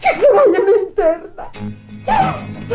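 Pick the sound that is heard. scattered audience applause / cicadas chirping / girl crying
girl crying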